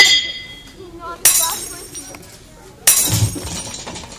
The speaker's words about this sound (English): loud metal crash.